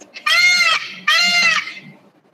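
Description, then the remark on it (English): A voice imitates a peacock's call with two loud, nasal, wailing cries in quick succession, each about half a second long. “Isn't that what they sound like? It's something weird like that, right?”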